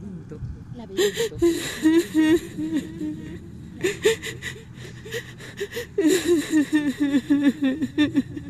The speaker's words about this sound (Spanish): Hay alguien que está llorando. Son los sollozos de una mujer. Es el llanto de la ninfa Eco.